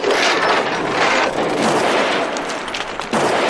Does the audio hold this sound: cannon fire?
yes